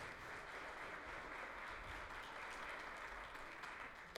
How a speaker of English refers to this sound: So everybody understands. If you understand, give the Lord a good clap offering this morning.